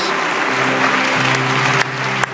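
An audience claps together for God in a steady, dense wash of applause that fills the whole moment, with a sustained low musical tone humming faintly underneath.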